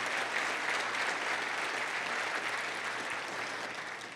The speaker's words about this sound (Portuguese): Você pode aplaudir esse Jesus que está no nosso coração? Aleluia.